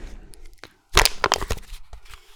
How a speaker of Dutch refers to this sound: Ik ga het eh, blikje kraken.